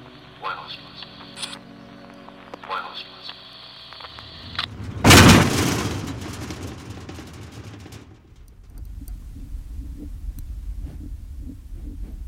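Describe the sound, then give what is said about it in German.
A single loud, deep foghorn blast bursts out over steady harbor background noise, holding for a couple of seconds before fading into a low rumble. “Nebelhorn, woraufhin Kosulich und Santinelli verstummen, die Aufzeichnung aber nicht abbricht.”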